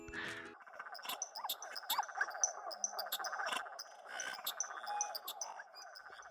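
A chorus of frogs croaks steadily in the background on a cold autumn night, many overlapping rhythmic calls forming a dense outdoor texture with no talking.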